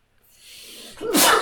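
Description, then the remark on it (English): A single loud sneeze: a rising breathy inhale builds for about a second, then bursts into a sharp, explosive spray of noise at the end. “Bless you. Thank you. It's not Corona.”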